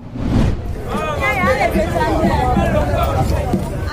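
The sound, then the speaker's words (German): Dense crowd hubbub of a busy West African street market, heard from a car driving along a road through the market, with many overlapping voices chattering and calling out, a steady bustling wash of sound throughout. “Wir fahren mit dem Auto auf einer Straße, die mitten durch einen Markt führt.”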